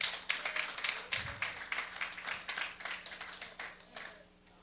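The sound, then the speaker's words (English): A church audience gives God a hand clap of praise, in dense, overlapping applause, with many sharp hand claps blurring into a steady crackle that swells and eases at moderate volume, with no voices heard. “Give God a hand clap of praise, y'all.”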